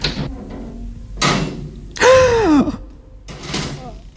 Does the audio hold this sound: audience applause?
no